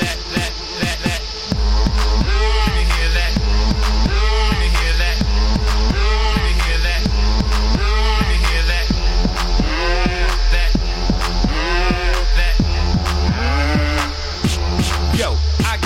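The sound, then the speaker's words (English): A loud novelty song about a cow plays: a short intro gives way to a thumping bass beat and steady rhythm, with bleating, farm-animal-like sounds woven through the dense music. “he does put out the occasional song like this one. This is …, ….”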